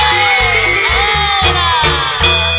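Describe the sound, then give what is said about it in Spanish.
A crowd of single women shouts and cheers loudly and continuously in answer to a call for a loud shout, a dense wall of high voices over a steady thumping low beat. “Y las chicas solteras, un grito, un grito bien fuerte.”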